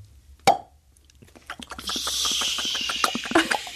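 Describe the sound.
A radio sound-effects artist imitates a champagne cork with a single loud, hollow mouth pop, then follows with a crackling, hissing fizz made by mouth that grows and sputters for a few seconds. No speech.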